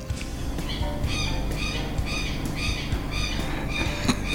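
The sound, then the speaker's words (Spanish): A southern lapwing, flying back and forth as its nest is being surrounded on a morning, calls in a steady series of harsh, high, strident notes, roughly two per second, over a constant low rumbling background. “bueno, ahí está el tero, Va y viene, va y viene.”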